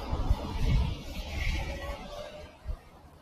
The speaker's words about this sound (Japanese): 子供たちは自転車に乗ってあ走ってます。交差点に着いたのでもっとうるさくなるかもしれない。